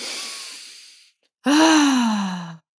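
A deep, airy breath drawn in, a brief pause, then a long exhale that turns into a voiced, falling sigh, fairly loud, with no talking.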